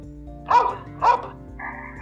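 A dog barks twice, sharp and close, with a short pause between the barks, over a low steady background hum; a faint tonal sound lingers afterward.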